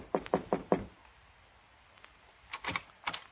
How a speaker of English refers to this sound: A sad old biddy with a mop told me Condano was in his office, so I knocked on the door.